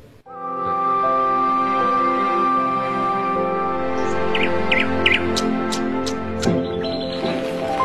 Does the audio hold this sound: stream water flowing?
no